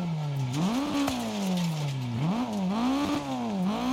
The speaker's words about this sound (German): Das Motor ist glaube ich auch nicht gut, ne?